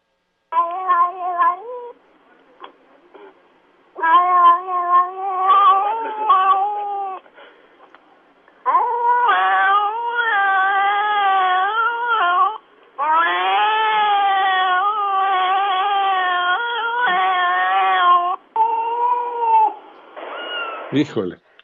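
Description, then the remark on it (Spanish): A cat makes a run of short, chattering, talk-like vocalizations, then shifts into longer, drawn-out meows, fairly loud, with brief pauses between bursts. “Y ahí notamos básicamente cómo pasa de la platicada ahora sí a un maullido pero la plática como tal de verdad que se da.”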